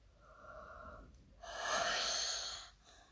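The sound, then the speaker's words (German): A rattling wheezing breath in a dark basement: a thin, whistling intake followed by a louder, raspy exhale, heard alone with no talking. “Und wir hörten ein Röcheln.”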